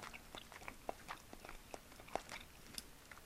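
Quiet chewing while eating a convenience-store bento, with soft, irregular crunchy clicks and bites spread across a few seconds, heard alone with no talking.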